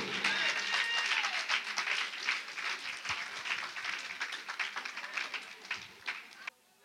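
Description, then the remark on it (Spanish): A crowd gives a loud applause to God, dense steady clapping filling the whole stretch before cutting off abruptly near the end, with a few voices faintly mixed in. “Dar un aplauso fuerte a ese Dios de poder.”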